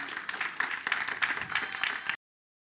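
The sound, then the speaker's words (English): An audience gives a long hand clap of praise, a dense, steady patter of many hands with small rhythmic swells, sustained for about two seconds before cutting off abruptly. “Come on, let's get a long hand clap of praise.”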